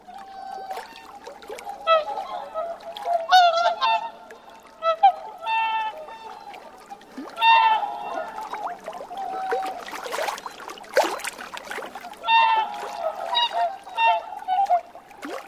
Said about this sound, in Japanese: トランペットみたいな鳴き声オオハクチョウですオオハクチョウは全長およそ140センチ羽を広げると2メートルを優に超える大きな鳥です